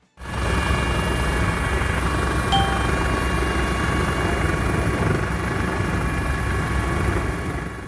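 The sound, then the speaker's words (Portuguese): A helicopter's steady, loud rotor and engine drone fills the whole stretch as it flies out to offshore platforms at sea, with a constant low throbbing roar and a faint high whine. “Para chegar às plataformas offshore, em alto mar, é necessário deslocar-se de helicóptero.”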